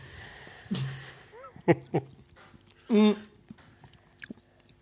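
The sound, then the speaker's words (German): Someone takes a sip of water: soft slurping and a couple of quick gulping swallows with wet mouth clicks, then a short voiced breath, followed by a few faint smacks. “Weil ich nehme einen Schluck Wasser.”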